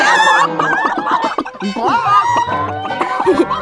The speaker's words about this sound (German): Die braune Henne gackelt und plustert ihr Gefieder auf.